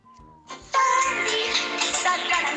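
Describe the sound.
A single voice makes loud, dense beatbox vocal percussion after a brief hummed tone, with rough, noisy bursts in a steady, somewhat clumsy rhythm.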